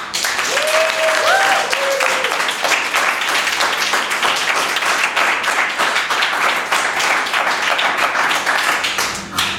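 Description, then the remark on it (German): Sustained applause from a live audience present on site, clapping on request, a dense, steady wash of many hands clapping for nearly ten seconds, with a few faint whoops or voices rising briefly near the start. “Und äh, damit äh, die Zuhörer sich unseres Podcasts da mal so ein bisschen Eindruck verschaffen können, bitte ich jetzt mal das Publikum hier vor Ort um einen Applaus, damit damit man einen Eindruck bekommt.”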